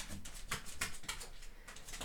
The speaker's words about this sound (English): My little puppy is scratching the door, trying to get out.